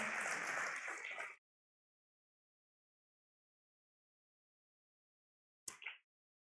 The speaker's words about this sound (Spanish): Exacto, exacto, es el momento donde aplauden.